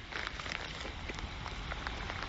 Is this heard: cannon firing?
no